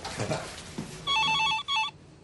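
A telephone rings in rapid trilling bursts, two ring pulses separated by a short gap, following a brief moment of indistinct voice or movement at the start.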